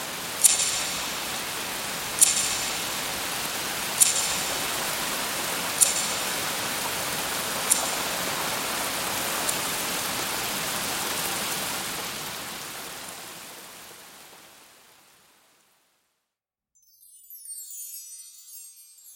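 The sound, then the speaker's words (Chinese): Steady, hissing rain falls with sharp ticks about every two seconds, then thins and fades to silence before a brief high sizzle near the end. “又是一阵下雨声”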